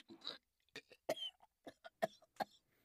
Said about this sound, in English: But by the sounds of it, and by the look of that red stain on your hand, that fire is about to go out. Now, if just that much got you coughing up blood,